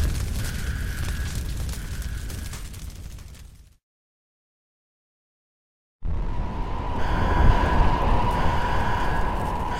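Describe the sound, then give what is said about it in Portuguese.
A deep, rumbling explosion roars from somewhere below, fades into a couple seconds of silence, then a second loud, sustained blast of booming noise follows. No voices are heard. “Em algum lugar abaixo de nós, ouvi uma das explosões dispararem e gritei em frustração.”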